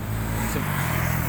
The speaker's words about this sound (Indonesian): nah ini suara motor suara mobil ini kan bising